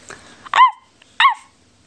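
Two sharp, high-pitched barks from Biscuit the puppy, loud and clear, spaced about half a second apart, each a quick yip with a bright harmonic ring and no talking around them.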